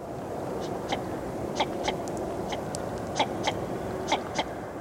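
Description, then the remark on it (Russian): A northern shoveler duck calls in short, clipped notes, often in quick pairs, repeating about a dozen times over a steady rushing background of wind or water. “или Широконоска.”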